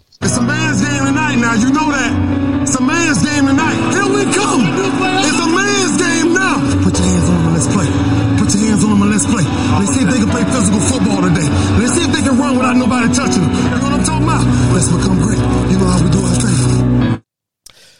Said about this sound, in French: Bon, et eh ben écoutez, passer cette petite introduction, on a un nouveau jingle.